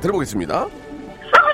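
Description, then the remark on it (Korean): A brief spoken phrase, then a pause, followed by a short, sharp burst of a human voice imitating the gobble of a turkey startled by a field mouse. The imitation is performed as an entry in a voice-mimicry contest. “들쥐를 보고 놀란 칠면조 소리.”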